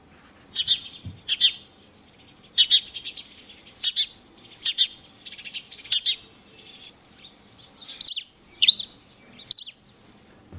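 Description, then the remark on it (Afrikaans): A house sparrow chirps repeatedly, about ten short, bright chirps in an irregular rhythm, clear, with a faint background hum and no voices. “Die eerste een is natuurlik die huismossie wat die hele wêreld vol pik en neste maak en die huismossie klink so.”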